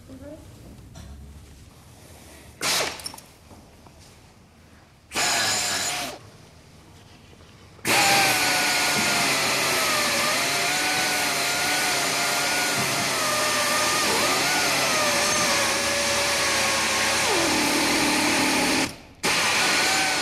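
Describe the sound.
A surgical bone saw whirs in two short bursts during a hip operation, then runs loudly and steadily for about ten seconds, its high whine wavering in pitch as it cuts, with faint voices in the background.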